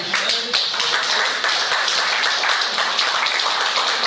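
A crowd applauds steadily, dense overlapping claps forming a bright, continuous wash of sound at a consistent loud level with no talking.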